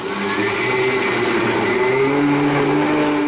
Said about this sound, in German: ein Mixer. Die Grillen sahen dann wirklich aus wie Kaffeepulver, bevor sie dann in das nächste Experiment geschickt wurde.